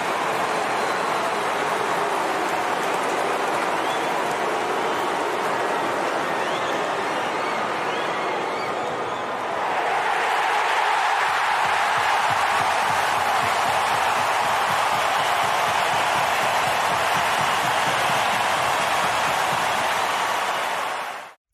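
A huge stadium crowd roars continuously for over twenty seconds, a dense, loud wash of cheering that swells further about halfway through and stays intense until it cuts off.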